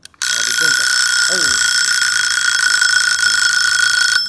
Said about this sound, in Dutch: Daar is de wekker. Dat houdt in, in principe dat het gesprek afgelopen is.